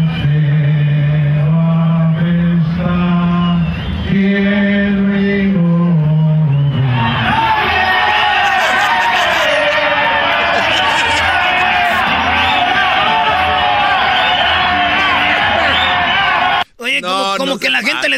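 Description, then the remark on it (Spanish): A lone amplified voice holds long sung notes, then a huge stadium crowd at a Caribbean Series baseball game erupts into loud, sustained shouting and booing that roars on for about ten seconds before briefly cutting out. “de repente se enojaron, mira. Como dijeron, dale, güey, griten, una, dos, tres, vámonos.”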